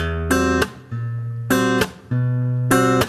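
A short melody on an out-of-tune guitar: bright, buzzy chords alternating with lower held notes in a steady repeating pattern, fairly loud, with no one talking.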